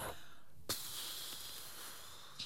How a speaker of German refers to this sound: Was ist das Erste, was du machst? Du schnaufst einmal richtig durch. Also richtig so Back draufblasen, so. Mach das mal.